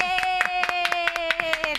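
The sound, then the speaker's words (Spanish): A small, thin round of applause from two people, with about a dozen quick, uneven claps over a steady sustained musical tone. “Este aplauso como solo somos dos, somos, dos es un poco triste.”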